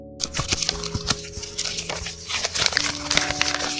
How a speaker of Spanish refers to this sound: Termina de hacer su poposita, la trata de envolver con el periódico, pero imagínense, el ruido que hace el, periódico es así como de...